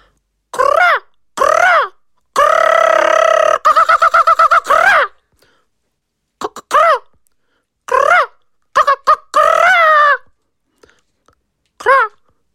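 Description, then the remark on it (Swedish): A rock ptarmigan gives loud, belch-like croaks and dry rattling calls in repeated bursts separated by short pauses, with no other voices. “Veckans pausfågel är fjällripan.”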